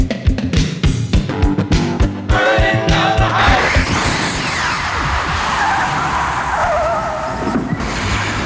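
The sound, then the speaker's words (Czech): A DeLorean car roars off with a loud, sustained screech of skidding tires, the engine revving in short bursts before the squeal smears into a long, continuous rush. “Přenastavujeme náš DeLorean a uslyšíme se za deset let.”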